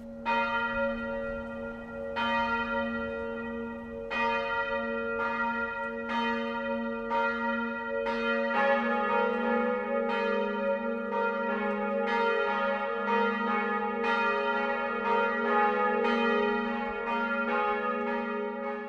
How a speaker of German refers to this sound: Es ist 12 Uhr. Das Mittagsläuten kommt heute von der Stadtpfarrkirche Marie Himmelfahrt in Eichach.